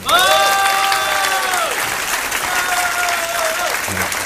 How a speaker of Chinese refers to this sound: 哎，你们不甘愿是吗？要看他们的演唱会，两个人的要多少钱？是不是啊？来还三十五块嘞。哦，所以你们掌声可以甘愿一点嘛？